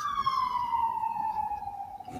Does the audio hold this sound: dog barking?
no